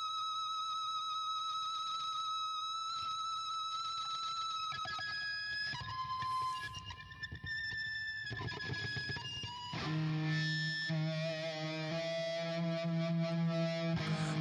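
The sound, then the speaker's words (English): The last track of a 1995 indie rock album plays, beginning abruptly: distorted, layered guitar tones with effects and echo, building into a denser, louder section with sustained chords and a driving low end partway through. “This is the last track, and I think it starts a minute in, but it just kind of abruptly begins.”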